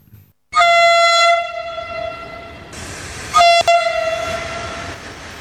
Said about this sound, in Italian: Il treno è passato Aspetta, e tu lo hai preso?